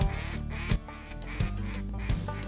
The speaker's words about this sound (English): Here come the ducks, hit the high baller.